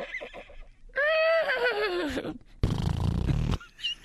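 A horse whinnies loudly in a single long, wavering call that falls in pitch, followed by a rough, breathy snort. No one speaks.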